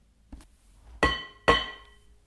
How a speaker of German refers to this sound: schlug Josua mit einem Hirtenstab gegen einen Haufen zerbrochener Ziegel